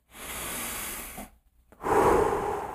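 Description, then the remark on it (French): A slow, deep breath drawn in, a brief pause, then a louder, forceful exhale, a breathing exercise done before singing a song. No talking. “Ça va faire mal aux oreilles parce que faut que je pense à descendre mon diaphragme. C'est ça qui On va faire des exercices de respiration.”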